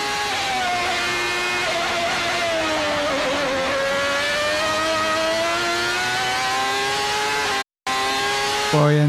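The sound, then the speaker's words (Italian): A high-pitched 1995 Formula 1 V12 racing engine at Suzuka screams continuously, its harmonic whine dipping and rising as it shifts and revs, loud, with a brief cut near the end. “Cominciamo magari ascoltando, l'abbiamo già fatto questa cosa, ma ogni tanto è, breve, è bene rifarlo, con il suono della Formula 1 V12, 95 Suzuka.”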